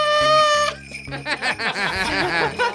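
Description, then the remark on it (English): A small valveless bugle, a bent piece of metal with no finger buttons, blares one short, bright, sustained note, then cuts off as several people burst into laughter that carries through the rest of the moment. “has this little trumpet with no little pushy finger buttons.”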